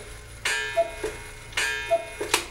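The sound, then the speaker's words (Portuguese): A wristwatch ticks in a steady repeating pattern, each bright mechanical click followed by a few softer ticks, recurring about once a second with no voices. “Isto é verdade, está a está o meu relógio.”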